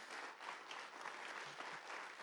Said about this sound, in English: Can we just honor them with a clap? Can we honor them?